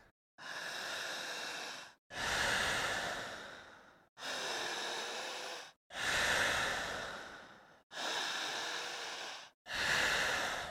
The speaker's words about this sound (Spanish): fuerte, intensa, jadeante, potente. Sigan respirando.